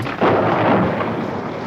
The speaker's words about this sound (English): So why don't, why don't we fire up the thunder and lightning?